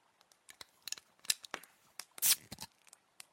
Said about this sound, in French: Tu sais, il fait un drôle de bruit, des capsules. Bon bah moi je vais me prendre une bonne petite bière.